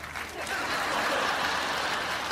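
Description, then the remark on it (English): Audience applause for a speaker who has just said he is a black man, a steady wash of many hands clapping at an even, fairly loud level, with a few chuckles mixed in from the crowd. “You get applause for being a black, man.”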